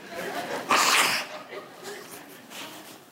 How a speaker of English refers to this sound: Everybody, give me a minute. I'm going to blow my nose. Holy Spirit told me, blow your nose.